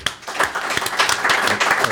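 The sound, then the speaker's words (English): A crowd applauds the mayor, Greg Ballard, steadily, dense overlapping hand claps forming a bright, continuous patter at even loudness throughout, with no voices standing out. “But let's give a round of applause for”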